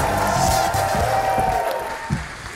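A studio audience applauds steadily for a couple of seconds, a dense wash of clapping with some murmuring voices mixed underneath, tapering slightly toward the end.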